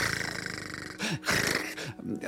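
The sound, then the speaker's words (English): A person vocally imitates a snake's rattling, raspy hiss, making several breathy, gravelly bursts in a row, fairly loud, with throaty growl-like edges. “I can't do the justice to it with my mouth. But this snake is rattling.”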